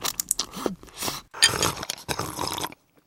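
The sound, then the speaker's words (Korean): Someone drinking saida (Korean cider, a carbonated soda): loud crackling fizz and wet slurping gulps in uneven bursts for under three seconds, then silence. “사이다 마시는 소리입니다.”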